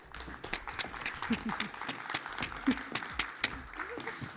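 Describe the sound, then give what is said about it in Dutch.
Sustained audience applause welcoming interview guest Amber Brandsen, a television newsreader, a dense rapid patter of many hands clapping at steady loudness, with some faint voices mixed in underneath. “Ik wil graag een heel warm applaus voor Amber Brandsen.”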